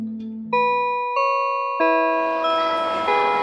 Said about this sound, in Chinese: 一听到下课钟声